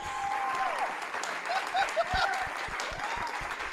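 A burst of canned crowd applause played from a soundboard, dense and steady, with many hands clapping at once for a few seconds and faint cheering or whistles mixed into the noise.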